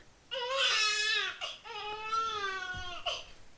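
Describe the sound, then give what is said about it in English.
Loud crying in two long wavering wails, each broken off by a short gasping sob, with no talking around it. “No need to cry.”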